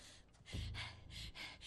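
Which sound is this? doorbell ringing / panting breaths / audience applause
panting breaths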